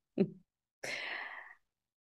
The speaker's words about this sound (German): Übrigens, wenn du so ein Grummeln im Hintergrund hörst, das ist mein Hund Miro. Der macht so komische Geräusche, wenn er schläft und sich wohlfühlt. Und er liegt gerade dann neben mir.